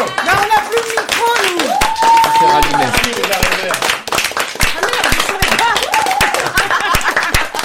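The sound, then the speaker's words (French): An audience claps steadily to thank the PL, a dense patter of many hands with sharp individual slaps, while voices call out and cheer over the applause throughout. “on peut les applaudir aussi peut-être.”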